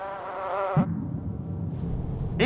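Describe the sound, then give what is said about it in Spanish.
A mosquito whines with a thin, high-pitched buzz, then gives way to a lower, steady droning hum that continues to the end. No one speaks. “Yo, el rey de los mosquitos, he decidido honrarte condescendiendo para hacer tu oreja mi morada.”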